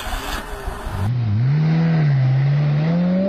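A sleek new green car's engine catches after a brief starter crank as the key is turned. It is put straight into gear and settles into a steady hum that rises and dips slightly as it pulls away, growing loud and sustained, with no talking.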